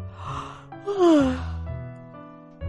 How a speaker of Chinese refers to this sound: 小狐狸一边打哈欠。